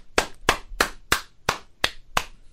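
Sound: hand clapping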